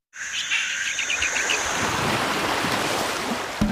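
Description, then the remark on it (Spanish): Steady surf washes onto a Caribbean beach in a continuous broad roar, while a few quick bird chirps and tweets ring out clearly over it in the first two seconds. “Si lo que necesitas es oír esto, necesitas la Semana del Caribe de Viajes El Corte Inglés con New Blue.”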